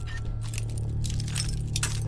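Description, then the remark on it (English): A sharp metallic snap and clinking as a lockpick breaks while unlocking a suitcase in a video game, with brittle glassy jingles over a steady low hum. “My game is broken! Just like that lockpick.”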